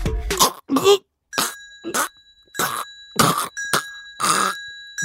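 A person chokes and coughs on a pani puri stuck in the throat, a rapid run of about eight harsh, strained bursts, loud, while a steady high ringing tone sounds in the background.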